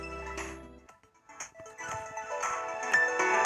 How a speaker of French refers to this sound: ça c'est la musique de Nintendo Switch Sport